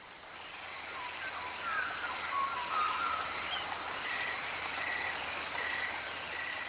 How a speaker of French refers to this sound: Ou la nuit dans la Dentry Forest en Australie.